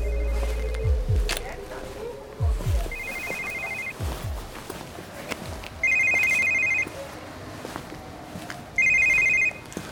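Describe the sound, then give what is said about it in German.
A telephone rings in the Schreckmümpfeli radio drama "Der Anruf" by Simon Chen, four trills spaced about three seconds apart, the first faint and the later ones louder and shrill, with dull low thuds in between. “Der Anruf von Simon Chen.”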